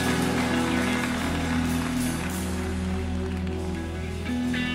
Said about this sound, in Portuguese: Vamos receber esse servo de Deus com forte aplauso a Jesus.